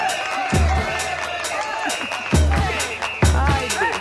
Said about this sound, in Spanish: Un aplauso. Un aplauso porque quedan inaugurados los carnavales 2024.